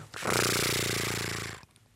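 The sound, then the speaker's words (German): A voice mimics a fishing or fly-fishing reel ringtone with a sustained buzzing, rattling whir held for about a second and a half, loud, then cutting off abruptly. “vielleicht können Sie uns mal ein Gefühl dafür geben, wie sich ein äh, äh, Angel- oder Fliegenrollen-Klingelton anhören könnte.”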